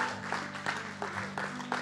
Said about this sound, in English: Come on, let's, let's give the Lord a good round of applause, the best we're going to give him all day. Come on, just for a moment, let's, let's, let's stir that up in here today.